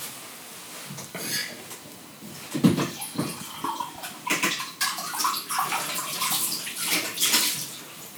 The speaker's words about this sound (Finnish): Tiski, tiska. Perussetti.